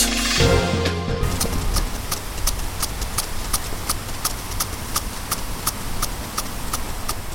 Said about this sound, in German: Ja, ein äh, interessantes Geräusch. Kannst du dir vorstellen, was das ist? Hm, kaputter Zweitakter? nee. Das ist tatsächlich eine Beregnungsanlage